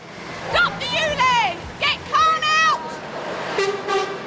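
Several car horns honk in short, uneven bursts over steady traffic noise on a busy main road in outer London, drivers honking in support of protesters with placards against the expansion of the low-emission zone, some loud, others quieter, overlapping as passing vehicles sound off one after another.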